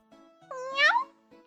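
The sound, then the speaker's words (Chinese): A single drawn-out cat meow, rising then falling in a bright, harmonic wail that swells loudest in the middle, with faint low murmurs before and after. “要是小兰也懂猫语的话，知道自己在羊他们眼中的形象，肯定会哭出声来。”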